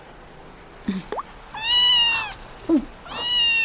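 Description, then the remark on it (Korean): Two drawn-out, high-pitched meows from a cat, one after the other, each lasting most of a second. A person makes short startled vocal sounds just before each one. “고양이 아니야?”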